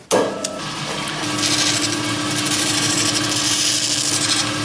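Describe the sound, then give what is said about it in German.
A steady grinding noise runs without pause, a coarse abrasive whir with a constant motor hum underneath, as the surfaces of the two sawn halves of a stone containing rock crystal are ground smooth. No one speaks. “Im Prinzip wurden die beiden durchtrennten Teile jetzt an der Oberfläche glatt geschliffen.”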